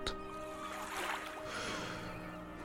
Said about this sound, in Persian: در پهنه های سرمنه وقتی که دیدند یک قایق موتوری با سرعت به آنها نزدیک می شود چه فکر کردند؟